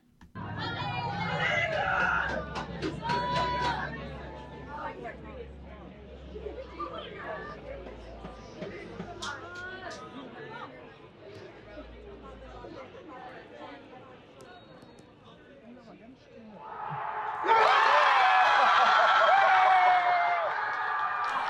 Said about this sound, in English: So anyway, uh, kind of cool there where there was that s- sort of delay. You heard some cheering just a second before the other cheering.